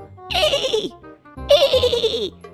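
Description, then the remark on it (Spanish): A voice imitates a horse neighing with two quavering, descending whinnies, each about a second long, loud, separated by a short pause. “Y el caballo apareció cerca de la araña y le dijo,”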